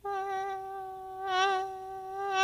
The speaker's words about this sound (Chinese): 是谁飞过来了？萤火虫来了耶！草原变得一闪一闪亮亮的。